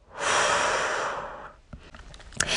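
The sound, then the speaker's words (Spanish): A deep breath in and out rushes loudly for over a second, airy and steady, then fades into quiet with a few faint clicks. No one speaks. “Una vez más, inhala. Exhala.”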